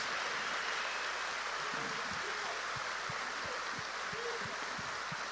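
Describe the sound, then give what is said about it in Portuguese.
A church audience of nearly 3,000 people applauding a group of church members, a steady dense wash of clapping hands held at an even level throughout, with soft low thumps recurring in a regular beat beneath it. “E agora sim, eu quero que você dê um aplauso bem forte para esse povo, para esses irmãos.”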